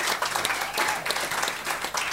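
Steady audience applause for a comedian, a dense wash of many hands clapping at a fairly even loudness throughout, with no voices standing out.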